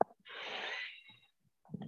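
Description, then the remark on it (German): A single long, deep, airy breath, drawn in slowly over most of a second by a person sitting upright but relaxed, followed by a soft pause and the start of another breath. “Einfach mal ein paar tiefe Atemzüge.”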